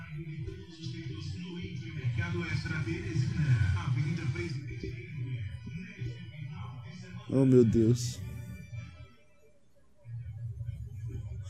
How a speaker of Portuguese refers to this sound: Bicho, eu odeio carro de som, mano. Por que, que existe carro de som? Bicho, carro de som é coisa de cidade pequena, mano. Só pode. Bicho, é, é literalmente um, uma dor de cabeça ambulante, cara. É um cara gritando informações que tu não quer saber.